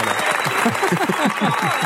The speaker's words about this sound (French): Applaudissements.